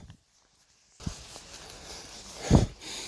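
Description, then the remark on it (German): Heavy, breathy panting after a moment of silence, with a couple of dull footfalls thudding underneath as someone walks uphill through a muddy forest in the hilly Palatinate region of Germany. “Und wahrscheinlich habt ihr es auch schon bemerkt, ich bin ziemlich am Schnaufen. Das liegt wohl an den Bergen um mich herum und an den Steigungen.”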